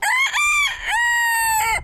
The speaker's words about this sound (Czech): tady máme uvnitř asi tři kohouty